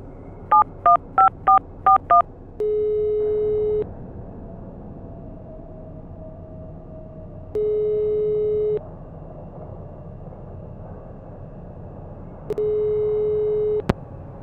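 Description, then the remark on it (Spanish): A home landline phone number is punched in with six quick keypad beeps, followed by three long ringing tones spaced a few seconds apart on the line, clear, with no voices. “Fue entonces que se me ocurrió, le llamaría al número fijo de nuestra casa.”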